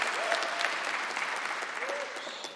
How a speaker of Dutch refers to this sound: Ja, die halve applaus hier.